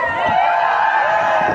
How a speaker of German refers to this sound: Was Sie da hören, sind Töne von der Demo gegen die Corona-Politik am 1. August in Berlin.